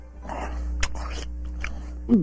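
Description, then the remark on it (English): A person imitates a dog with rough, growly yaps and snuffling sounds, ending in a brief rising whine, over a steady low hum. “Does eating dog food turn you into a dog? Bart! Well, that answers that question.”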